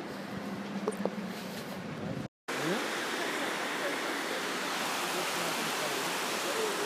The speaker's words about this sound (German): So, das, so klingt der Wasserfall hier mit allen Touristen drumherum.